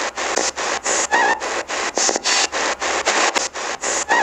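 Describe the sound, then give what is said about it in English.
Loud white-noise static that shifts higher in pitch, coming in rapid choppy bursts broken by brief dropouts at a steady rhythm, with faint tonal whines flickering inside the hiss. “It goes high pitched. The white noise changes.”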